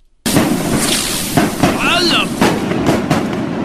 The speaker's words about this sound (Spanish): Eh, ya de nuestros compadres de Tultepec, que vinieron a tirarme cohetes, no sé quién me los invitó, pero aquí los tengo. Échenle, muchachos.